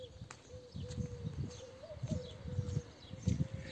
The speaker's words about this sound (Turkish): Oğlum sabahın bu saatinde dışarı çıkmak da bir ayrı oluyor ha. ha. Duyuyor musun kuşların sesini?